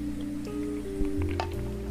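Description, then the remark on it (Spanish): Wet sipping and swallowing of water, a few soft gulps and squishy drips over a steady low electrical hum, with no one talking. “tomen agua, gente.”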